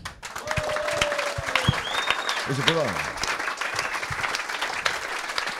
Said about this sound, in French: Et j'aimerais bien qu'on applaudisse Jacques Bon.